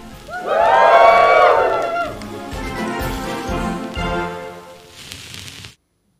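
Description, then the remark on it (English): A circus audience lets out loud, rising woohoo shouts and cheers together, peaking early and then tapering into a scattered, noisy hubbub before cutting off abruptly. “Let's hear a few woohoo.”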